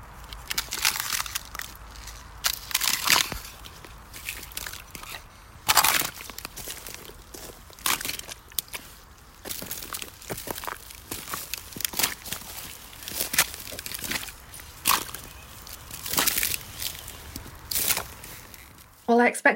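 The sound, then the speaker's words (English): Repeated crunching and cracking steps, fairly loud, as a 10-year-old boy breaks brittle ice underfoot in Coventry, UK, in an irregular walking rhythm with sharp crackles between the heavier crunches. “It's the sound of breaking ice.”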